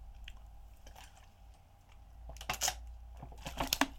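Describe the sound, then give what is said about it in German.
Someone drinks water, with soft wet mouth sounds building into a few louder gulps and swallows toward the end, no talking. “Wichtig bei so einem Podcast immer trinken, damit die Stimme schön geölt bleibt.”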